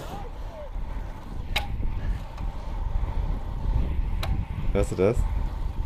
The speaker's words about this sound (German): Kette springt. Oh, oh, oh. Hörst du das?